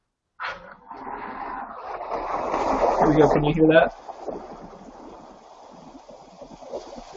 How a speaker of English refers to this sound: I can hear the rain. Okay. I don't hear any jazz. Well, I haven't turned the jazz on, so you can turn, you can alternate them.